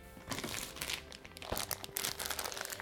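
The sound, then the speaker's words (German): Continuous crinkling of a plastic packet of instant chicken soup being handled, with irregular sharp crackles and rustles throughout and no talking. “Und ähm, deswegen habe ich mir jetzt mal so eine Hühnersuppe aus der Tüte gekauft, um mal zu gucken, was da eigentlich so drin ist.”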